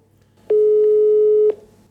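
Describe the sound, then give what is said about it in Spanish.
A telephone ringback tone on an outgoing call placed to a guest: one steady, loud, single-pitched beep lasting about a second, heard on its own over a faint low background hum. “Vamos a llamarla y el teléfono ya está sonando.”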